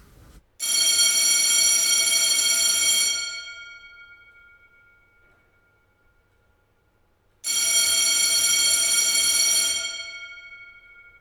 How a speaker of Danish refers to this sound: i vagtbygningens fællesrum, hvor personalet sidder og spiser aftensmad sammen, hænger der på væggen en stor rød klokke, der mest af alt minder om klokken fra skolegården. Den er koblet til en telefon, og når den telefon ringer, er det alvor.